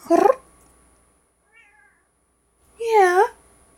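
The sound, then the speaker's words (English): A female cat meows twice, a short sharp cry followed by a faint chirp, then a longer, louder drawn-out meow after a pause. “if it is able to be heard on this recording, I'll make sure people can hear the, the meow or the, yeah.”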